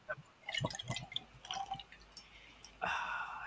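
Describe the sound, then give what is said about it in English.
A drink is poured over ice: a few sharp clinks and drips, then a steady splashing pour that fills the final second. The sounds are fairly quiet, with no talking. “Oh, there we go. That's over nice. ice.”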